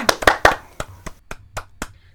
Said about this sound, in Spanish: un fuerte aplauso